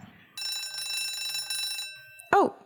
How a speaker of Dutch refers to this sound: dat was de bel.